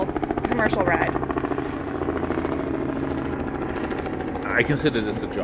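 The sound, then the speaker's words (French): A helicopter passes overhead, its rotor thudding in a steady, rapid chop that stays loud throughout, with brief bursts of voices near the start and end. “Celui-là, à mon avis, c'est un hélico loué uh, par des touristes.”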